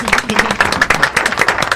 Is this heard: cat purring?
no